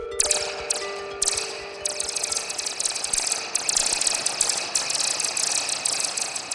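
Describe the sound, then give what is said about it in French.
A box of marbles rolling down a slope and clattering, a dense, continuous rattle of tiny hard clicks that stays loud and steady for several seconds, with no voices. “c'est euh, une boîte avec euh, des billes à l'intérieur”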